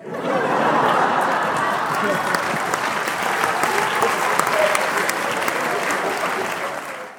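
A canned applause sound effect used as a laugh track: sustained applause from a large crowd, a dense wash of clapping that rises quickly, holds steady and loud for several seconds, then tapers slightly at the end, with faint cheering mixed in.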